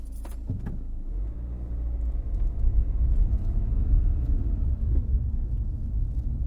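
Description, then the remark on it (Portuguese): A brief clatter at the start gives way to a car's steady low engine rumble from inside the vehicle, driven shortly before midnight, swelling slightly as it drives on, with no one talking. “Aos 44 anos de idade, sair de casa pouco antes da meia-noite e pegar no carro já não faz muito o meu género, confesso.”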